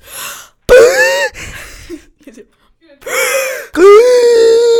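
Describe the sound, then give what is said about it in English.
A person gasps dramatically for breath several times in a row, loud and strained, with sharp, voiced intakes separated by short pauses and faint breathy sounds between them. “Sounds like we're having an asthma attack.”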